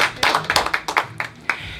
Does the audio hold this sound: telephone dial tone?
no